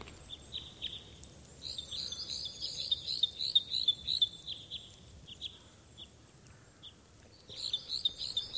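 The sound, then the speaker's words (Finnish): Parrot crossbill calls: bursts of high, repeated chirping notes that come in clusters and pause, then resume near the end, over a soft steady background hiss. No one speaks. “Isokäpylinnun erottaminen hieman yleisemmästä sukulaislajista pikkukäpylinnusta tuottaa usein päänvaivaa.”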